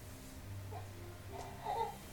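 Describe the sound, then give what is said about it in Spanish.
A baby cries faintly in the background, with a couple of short, thin wails rising near the end over a low steady hum. “Pero no podemos despedir con la hueva llorando, ¿o sí?”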